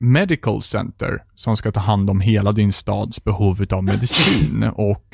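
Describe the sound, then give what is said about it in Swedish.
Someone talks steadily, then near the end a single loud sneeze bursts out, sharp and breathy, before the speech resumes. “Prosit.”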